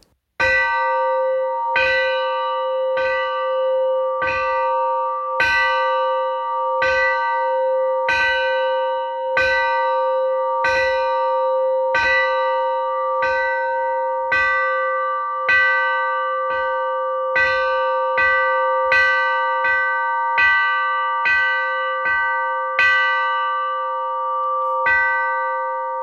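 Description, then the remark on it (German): The original bell of the ship Jura rings out loud, struck over and over in a steady, quick rhythm, each clang ringing on with a sustained metallic tone. No voices are heard. “Wir könnten also hier äh, an dieser Stelle vielleicht äh, einmal den Glockenschlag, der Originale von der Jura einspielen.”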